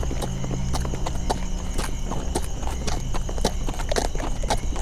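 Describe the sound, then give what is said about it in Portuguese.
Riders on horseback approaching in darkness amid thunder, with a steady clip-clop of hooves, many sharp overlapping hoofbeats in a brisk rhythm over a low continuous rumble, loud, with no one speaking. “Vamos focar nos cavaleiros que estão vindo.”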